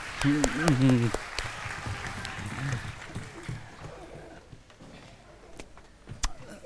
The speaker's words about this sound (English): Could we give a round of applause for all the volunteers?